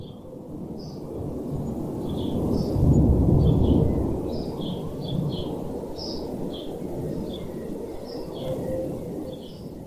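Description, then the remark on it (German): A deep, broad rumble of jet engines from a passenger plane that has just taken off passes overhead, swelling to a peak and slowly fading, while birds chirp and call intermittently in the background. “Über uns ist gerade ein Flieger abgehoben und da sitzen einige Passagiere drin, du hast vielleicht das Geräusch gehört, der Triebwerke.”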